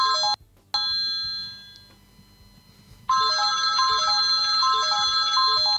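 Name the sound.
alarm clock ringing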